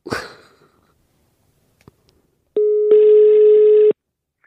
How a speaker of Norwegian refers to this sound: Vi ringer Martin. Skal vi gjøre det med en gang? Ja, vi ringer ja.